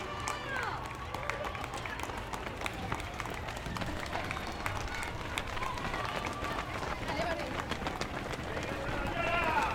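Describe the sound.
People running along a street, their footfalls a quick, steady patter of sharp taps over a constant outdoor hubbub, with indistinct voices and calls mixed in throughout.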